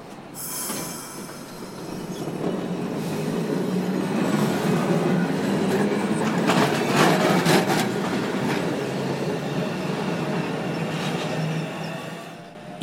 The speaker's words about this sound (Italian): Giusto il tempo di far passare il tram e partiamo.